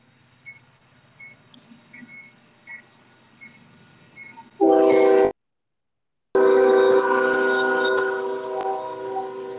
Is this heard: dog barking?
no